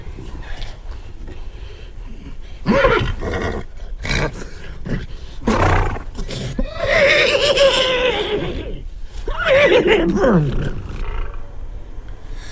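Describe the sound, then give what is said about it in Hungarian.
A person imitates a thirsty horse's whinny several times, producing strained, wavering neighing bursts with breathy gaps between them, fairly loud. “Ez egy szomjas ló nyerítése.”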